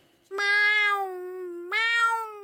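animal, cat meowing

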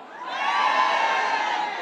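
crowd, crowd cheering

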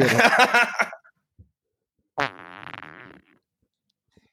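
human body sound, fart

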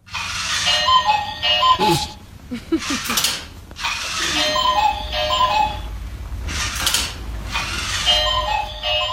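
household object, alarm clock ringing

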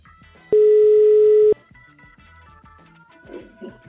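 signal or alarm, telephone ringing tone

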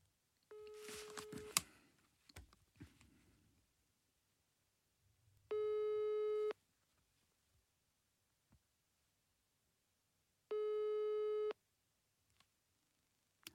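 signal or alarm, telephone ringback tone

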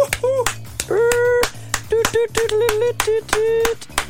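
human body sound, hand clapping

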